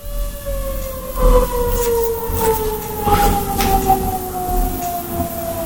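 An alarm goes off at six o'clock, sounding continuously: a steady, slowly falling siren-like wail in the mid range with overlapping tones, fairly loud over a low rumble, with no voices.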